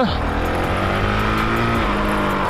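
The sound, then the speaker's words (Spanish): A 200-kilogram motorcycle ridden through mud on tyres not made for mud, its engine droning steadily, loud and continuous, its low tone shifting slightly in pitch as it labors along. “Eso sumado a una moto que pesa 200 kilos, que es muy poco para el tipo de moto que es, todo suma, ¿sabes?”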